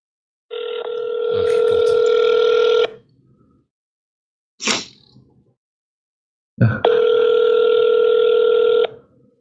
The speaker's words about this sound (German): Ich möchte den Mike Evans anrufen in Florida. Ich habe da die Nummer.